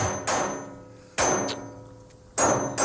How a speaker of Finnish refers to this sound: Tässä vasaroidaan metallia, metalliputkea. Vakaan näköiset kädet. Kädet hakkaa.